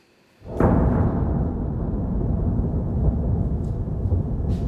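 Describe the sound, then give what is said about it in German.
A sudden deep boom hits after a brief quiet, then a heavy low rumble rolls on and lingers, loud and sustained: an explosion in Kyiv at night during a Russian missile attack, its pressure wave shaking windows and buildings in the city centre. “Mehrere laute Explosionen sind zu hören und Druckwellen lassen Fenster und Gebäude sogar im Zentrum der Stadt erzittern, berichten Augenzeugen.”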